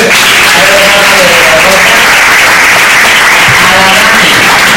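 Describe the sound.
Sustained audience applause, a dense, steady wash of many hands clapping at once, loud throughout, with faint voices murmuring underneath.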